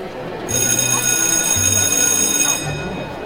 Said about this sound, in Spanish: Yo voy a hacer como esas voces que empiezan antes de, los teatros antes de que empiece una obra, que se oye un timbre, que todo se apaga y después de que se apaga se escucha la siguiente voz.